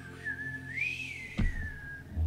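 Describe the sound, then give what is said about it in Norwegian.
A single long, wavering whistle imitates the wind, rising and falling in pitch over about two seconds, with a soft thump partway through and faint low rumble beneath. “begynner dere å merke at bare at liksom lyden av vinden som bare”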